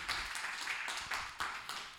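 A church audience applauds the King of Glory, a steady crackling wash of many hands clapping together at moderate volume, with a few sharper claps standing out and no voices heard.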